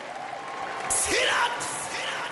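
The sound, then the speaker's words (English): A crowd cheers and applauds as the state governor is welcomed at a Chicago Sky event, a steady wash of clapping and noise that swells briefly in the middle, with a voice speaking over it. “Let's make some noise.”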